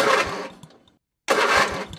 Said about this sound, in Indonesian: terus ya udahlah gue bawa gitu kan motor kopling ini gitu pertama kayak kok ini nggak bisa nyala nyala nih motor nih